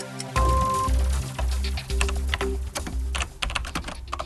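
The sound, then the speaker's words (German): Rapid keyboard typing, a steady stream of crisp key clicks with irregular rhythm, over a low continuous hum, with no voices present. “Die meisten, die irgendwann das Tastaturschreiben lernen, fragen sich, woher kommt diese scheinbar vollkommen unlogische Anordnung der Tasten?”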